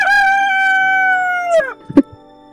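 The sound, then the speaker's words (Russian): A single rooster crow rings out loud, holding one long steady note before dropping away, followed by a few brief soft knocks. No one speaks. “К 4 утра может э, а, только одна птица всех будить, это петух”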